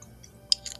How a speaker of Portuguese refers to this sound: Pera, deixa eu tomar água que tá foda.